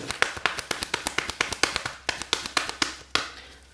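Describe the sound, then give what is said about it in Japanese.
Tarot cards being shuffled for a reading about the coming week: a quick, steady run of about fifteen crisp papery taps and slaps, evenly spaced and moderately loud, with no voices. “ごめんねめっちゃ混ぜるからこれでいこう。”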